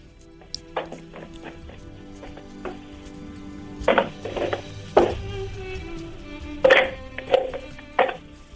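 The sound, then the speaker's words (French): A small flask standing in front of the speaker tips over and clatters: a series of sharp knocks and glassy clinks, some ringing briefly, scattered irregularly over a quiet hum. “C'était un flacon qui était devant moi et qui était tombé”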